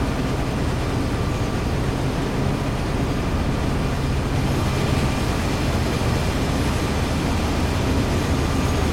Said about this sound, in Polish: Jadę sobie pociągiem towarowym. Proszę bardzo.